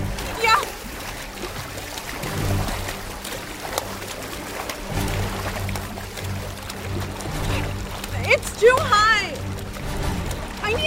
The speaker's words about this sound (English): There! The splashing's coming from over there now.